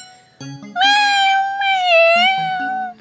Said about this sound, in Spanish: ¡Miau!